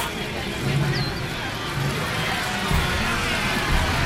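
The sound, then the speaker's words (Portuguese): A dense, steady wash of crowd noise, with many voices blending into a loud commotion and occasional louder swells, as if people were shouting over one another. “Está ali alguém aos gritos?”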